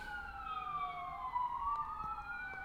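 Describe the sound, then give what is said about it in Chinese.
An ambulance siren wails steadily, its pitch sliding down and then back up as it passes, with a low rumble of traffic underneath and no talking. “现在有救护车，先等救护车过吧。”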